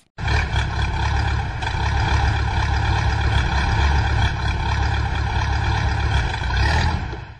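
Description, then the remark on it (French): A tractor passes, its engine droning loudly and steadily, a low rumbling growl with a rough mechanical buzz that holds nearly constant for several seconds before cutting off. No voices. “Un tracteur qui passe.”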